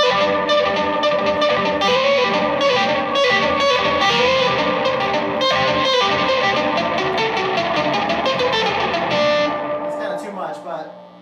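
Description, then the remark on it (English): A one-minute solo guitar piece: sustained guitar notes drenched in heavy reverb blur into a dense, shimmering wash that plays steadily and loudly, then thins out with a brief rising flourish as it fades. “And with like maybe a ton of, let me see what it's like, what it sounds like with a ton of delay on, with a ton of, uh, sorry, reverb on it.”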